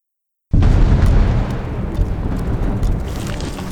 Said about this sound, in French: Hein Qu'est-ce que c'est Il y a eu une puissante secousse.